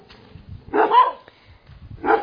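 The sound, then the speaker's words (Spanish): A dog barks twice, a loud bark followed about a second later by another starting, with quiet rumbling background between. “Hasta los perros.”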